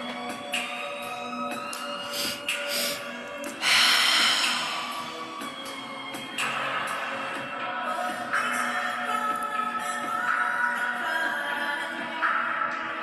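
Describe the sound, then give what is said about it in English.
In a breathing exercise, slow, deep breaths rush in and out in long, steady cycles, fairly loud, over a soft sustained tonal hum with no talking. “Keep breathing in this way and become mindful of the breath and any feelings you're feeling in your body.”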